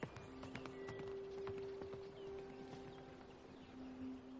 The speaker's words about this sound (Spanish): Ve a los albinos alejarse subidos en un caballo blanco.